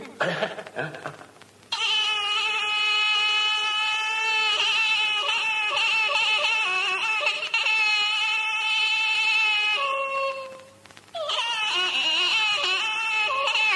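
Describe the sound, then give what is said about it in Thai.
A voice mimics the Thai pi boxing oboe: a loud, reedy, nasal wail holding a wavering melody for several seconds, breaking off briefly, then resuming. “นักมวยผมไม่มีปีก็ชกไม่ออกนี่ ช่วยสงเคราะห์ทำเสียงปีหน่อยเถอะนะ”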